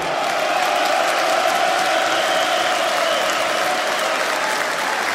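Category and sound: crowd, crowd applause and cheering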